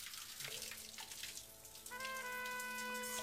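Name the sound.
shower water running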